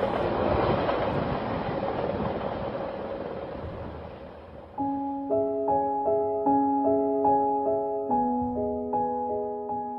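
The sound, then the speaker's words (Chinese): A train roars through a mountain tunnel, leaving the hometown, in a loud, dense rumble that fades slightly, then gives way to layered sustained tones pulsing in a steady repeating rhythm. No one speaks. “火车穿过山洞，驶离家乡。”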